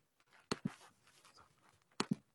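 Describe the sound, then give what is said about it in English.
A puppy yaps in two quick pairs of sharp, high barks after hearing some noise, loud, with a quiet rustling background between them and no one talking. “My little puppy um, heard some noise.”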